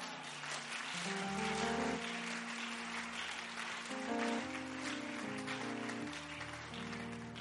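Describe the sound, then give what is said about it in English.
An audience at a church service claps steadily and densely throughout as a clap offering, a continuous crackling wash of applause over sustained keyboard or organ chords that shift every second or two. “Increase that clap offering.”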